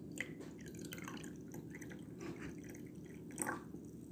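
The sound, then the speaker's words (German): Tea is poured into a cup, trickling and dripping in a soft continuous splashing with brief bright plinks, the loudest near the end. “Teeaufguss”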